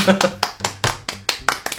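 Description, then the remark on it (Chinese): Steady applause from what sounds like one person: about nine sharp, evenly spaced claps in quick succession, with a faint voice murmuring underneath at the start. “嗯，好，那我们这期就在大师的掌声中结束吧。”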